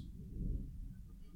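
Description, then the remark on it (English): A low rumble of thunder from a storm that has lasted all evening at a house rolls steadily through the whole moment, deep and muffled, with no voices over it. “And I apologize about the thunder behind me there.”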